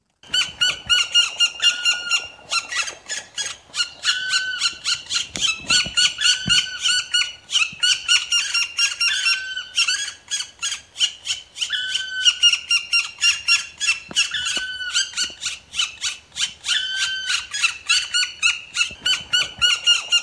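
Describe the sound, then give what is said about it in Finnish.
Four black woodpecker nestlings at a nest in a cottage yard at Sandö, Nauvo, Finland, in May 2020, call loudly and incessantly, a rapid stream of harsh, squawking chirps repeating in dense pulses throughout, with no talking. “Palokärjen poikaset on tässä äänessä ja mökkimme pihapiirissä oli siis tämä äänekäs pesiä toukokuussa 2020.”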